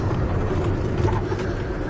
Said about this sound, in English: It's kind of loud on this truck.